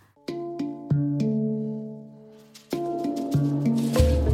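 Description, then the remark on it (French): A short instrumental radio jingle for a musical interlude on Erzen Radio, of bright, sustained harmonic notes stepping through a simple melody, punctuated by crisp percussive hits, at moderate volume with no voices. “On se retrouve juste après une parenthèse musicale.”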